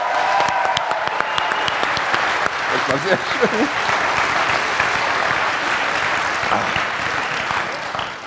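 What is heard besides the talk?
audience applause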